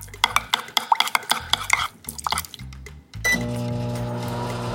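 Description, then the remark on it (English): A spoon scrapes and clinks rhythmically against a bowl while stirring quick-cooking oats and a half cup of water for a few seconds; then a steady electric hum, like a running microwave, takes over. “You can give it a little stir and then we're going to put it in the microwave for 1 minute.”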